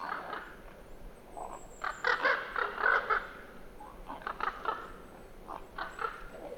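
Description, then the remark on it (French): Common ravens flying over around 6 pm give harsh, croaking calls in two loose bursts, several rough squawks each, over a steady outdoor hiss, with no one talking. “parce que les grands corbeaux ne passent qu'à une certaine heure, euh, vers 18h, entre 18h et 18h20.”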